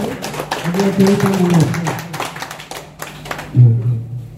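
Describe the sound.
Dense, steady audience applause with many overlapping claps runs for several seconds, while a loud voice speaks over it and briefly rises near the end.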